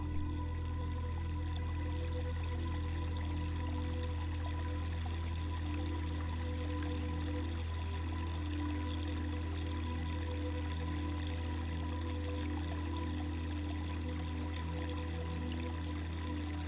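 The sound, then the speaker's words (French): A steady, unbroken wash of flowing water, like a stream, runs quietly throughout with no voices, underlaid by a constant low humming drone. “Méditation au son de l'eau”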